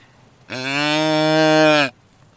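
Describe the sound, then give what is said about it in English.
A deer grunt call, its button pressed, sounds one long, steady fawn-like bleat imitating a young deer looking for its mother, loud, lasting just over a second with no talking around it. “That sounds like a fawn that's a baby deer looking for mommy.”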